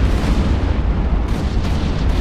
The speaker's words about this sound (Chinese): 所有的导弹同时爆炸